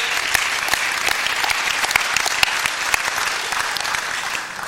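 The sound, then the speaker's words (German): A crowd at the Hobkirche church claps steadily for several seconds, a dense wash of many hands with a few sharper individual claps standing out, sustained throughout without speech on top. “Dort bauen wir einen Campus. Genau. Applaus”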